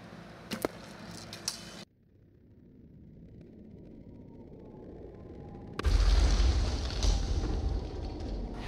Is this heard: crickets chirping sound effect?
no